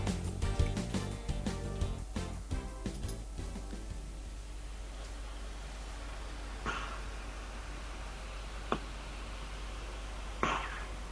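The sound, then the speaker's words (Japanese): A cat purrs up close with heavy, rhythmic breathing, strongest in the first few seconds, then settles quieter, broken by a few short, sharp snorts toward the end. “録音開始で最初20秒ほどで目を覚まして目の前に僕がいたことで興奮し息荒くゴロゴロと言い出しますそして自分の鼻をペロッとやったところで録音終了しました”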